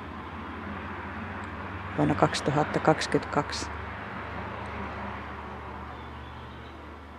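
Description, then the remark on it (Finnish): A steady low rumble of traffic and aircraft hangs over the industrial town of Rovaniemi throughout, with a short burst of someone speaking partway through. “Tämmöinen on teollinen äänimaailma Rovaniemellä”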